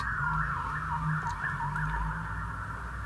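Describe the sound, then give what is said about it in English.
A police siren wails steadily outside a window, its pitch rising and falling in a quick, repeated warble over a low rumbling hum, loud and continuous throughout with no talking. “I wonder, can you hear the fuzz going past the window there?”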